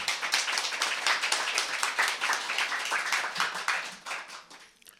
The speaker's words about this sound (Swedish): Vi hälsar honom välkommen med en varm applåd tycker jag.